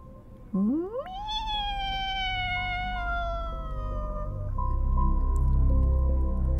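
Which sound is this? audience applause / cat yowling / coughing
cat yowling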